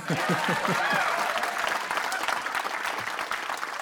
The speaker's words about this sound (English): Okay, during the post production of this interview, I will put some applause in right there.